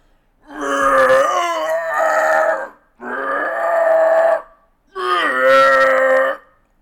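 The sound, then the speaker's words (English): Howler monkeys up in the trees roar in three long, deep, droning bursts separated by short pauses, each call loud and rough with a rich, throaty tone and no voices. “Comes the answer a thunder of howler monkeys up in the trees.”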